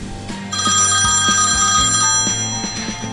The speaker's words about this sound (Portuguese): Ah, ai, meu celular tá tocando.